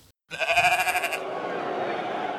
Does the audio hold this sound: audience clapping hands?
no